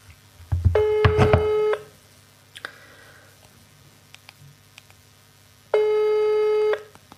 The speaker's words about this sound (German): Gut. Jetzt klingelt es bei der Friederike.